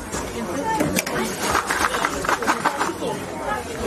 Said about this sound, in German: Ja, so klingt es, wenn die Mutzen aus dem heißen Fett rausgeholt werden und nochmal so ein bisschen abgeklopft, bevor der Puderzucker drüber kommt und das Ganze dann in Tüten gefüllt wird.